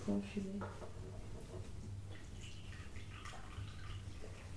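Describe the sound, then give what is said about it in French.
Tea is poured steadily into a cup, a soft continuous trickle whose pitch rises slightly at the start as the cup fills, with faint voices murmuring in the background. “Je vais vous verser un petit thé si vous voulez, Merci beaucoup.”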